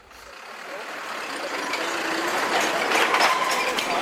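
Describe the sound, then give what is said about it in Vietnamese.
Dense, dusty road traffic of large trucks with motorbikes and cars among them rumbling past on a badly damaged, potholed road near a stone quarry at km 426+500, between Tan Tien commune, Chuong My, Hanoi and Nhuan Trach commune, Luong Son, Hoa Binh, Vietnam. Engines grow steadily louder, with scattered clatter and rattling over the rough surface. “hàng loạt xe máy, ô tô con lọt thỏng giữa những đoàn xe tải cỡ lớn”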